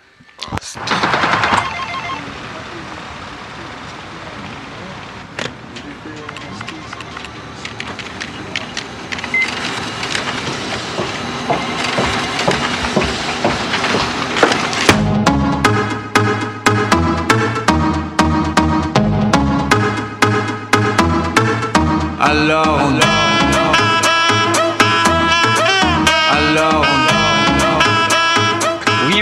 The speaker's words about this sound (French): Et puis, on, va écouter une petite pause euh, musicale.